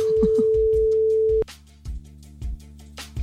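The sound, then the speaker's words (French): A telephone ringback tone: one steady, fairly loud beep lasts about a second and a half, then silence as the call goes unanswered with no answering machine, with soft rhythmic thumps underneath. “Et quoi, il n'y a pas de répondeur à cette... Bah non, écoute, là, ça sonne dans le vent.”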